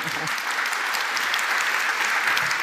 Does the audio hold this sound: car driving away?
no